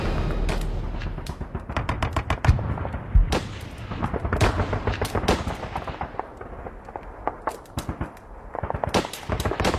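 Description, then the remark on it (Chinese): A sustained artillery bombardment: dense, overlapping booms and sharp cracking blasts in rapid, irregular succession, with a constant low rumble beneath and a few heavier thuds standing out. No one speaks. “三分钟以后停止炮击，敢死队给我冲上去守玉米。”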